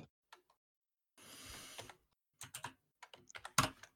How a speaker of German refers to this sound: Ich habe auch irgendeine Scheiße getippt.